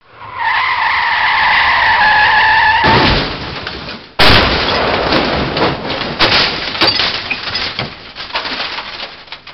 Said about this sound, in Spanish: Viene un coche.